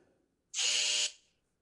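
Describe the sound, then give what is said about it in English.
A single loud, harsh electronic buzz lasting about half a second, steady and bright, a clothes dryer's end-of-cycle signal, cutting off abruptly with a short fading tail. “Hey, dryer's done.”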